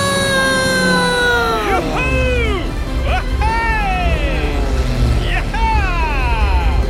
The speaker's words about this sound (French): Le mécanicien fait tourner l'hélice, le moteur s'enclenche,